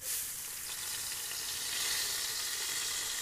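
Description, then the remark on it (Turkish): A loud, steady sizzle of washed rice for pilaf being poured into a hot pan, a bright crackling hiss that starts abruptly and carries on evenly, with no voices. “Bu kaynadıktan sonra yanılmıyorsam e, pilavımızı dökeceğiz.”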